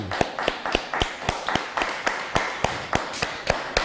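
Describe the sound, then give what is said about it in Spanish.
An audience claps steadily at the opening of a Shabbat Torah teaching, about fifteen sharp claps in a quick even beat, fairly loud over a light background wash, with no one talking. “Un fuerte aplauso.”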